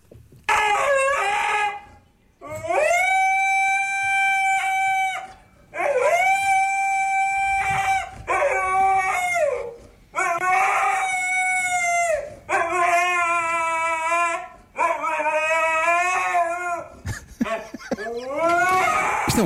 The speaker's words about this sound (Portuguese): Uh, e, portanto, vamos ouvir primeiro uh, uh, o som tal e qual foi captado uh, pela dona do, do Husky.